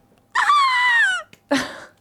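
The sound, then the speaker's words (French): A voice imitates hysterical female fan screams: one long, piercing, high-pitched shriek that slides gradually downward, a short pause, then a second, rougher scream that fades out. “on se la refait et donc normalement le public en délire, les cris féminins hystériques, n'est-ce pas Donc comme bon, bref, donc attention les cris hystériques féminins.”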